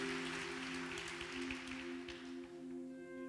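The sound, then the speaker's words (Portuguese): An audience at a sermon applauds for Jesus in a dense, steady wash of clapping that carries on throughout, while a low sustained keyboard chord hums underneath. Nobody speaks. “Dá um aplauso para Jesus, dá.”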